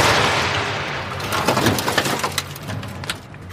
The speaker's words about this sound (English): Reaching out with her magic, she calls down a lightning bolt which zaps the rope holding up the cage.